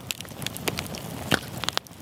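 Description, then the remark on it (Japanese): A bonfire crackles, with a steady low hiss broken by sharp, irregular pops and snaps, a few louder ones standing out. No voices. “あなたもこんな音で癒されてみませんかステーキを焼く音川のせせらぎ焚き火の音”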